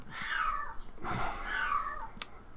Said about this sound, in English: Oh, you hear the cat? I think she waits until I'm recording to stand outside the door and start yelling.